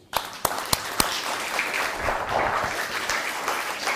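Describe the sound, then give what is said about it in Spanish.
A crowd applauding steadily, a dense wash of many hands clapping, opening with a few sharp individual claps before settling into sustained applause, at the close of a religious study talk. “Un fuerte aplauso.”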